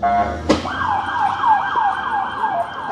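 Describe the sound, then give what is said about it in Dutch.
A park police car siren wails in Central Park, rising sharply and then cycling in a rapid repeating yelp pattern, preceded by a brief sharp burst, with traffic rumble underneath. “Daar heb je je sirene.”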